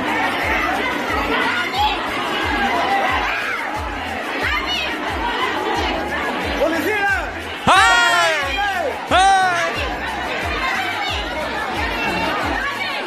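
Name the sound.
crowd chatter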